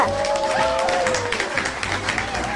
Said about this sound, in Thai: …นั้นได้ร้องแล้วก็ปรบมือให้กับเพื่อน สุดยอดไปเลยอะเป็นการหกสูงที่ยอดเยี่ยมอะไรแค่นี้